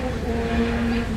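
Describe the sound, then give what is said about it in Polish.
Steady city traffic of Warsaw rumbles in the background, heard from the green Dolina Służywiecka park during a Matsuri festival: a continuous low engine drone with a faint tonal hum, even in loudness and without distinct passing vehicles or nearby voices. “no i to, co słyszycie w tle, to jest oczywiście Warszawa, bo mimo, że jesteśmy w parku, bardzo fajnym parku zielonym, Dolina Służywiecka, no to jednak dookoła jest mnóstwo hałasu, mnóstwo ruchu ulicznego.”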